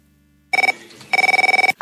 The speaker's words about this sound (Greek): Χτυπάει το σταθερό μου τηλέφωνο, το οποίο ότι το ξέρουν 5-6 άνθρωποι.